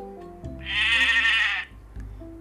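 A single goat bleat, loud and quavering, lasting about a second, rising up over a low, steady tonal background that continues before and after it.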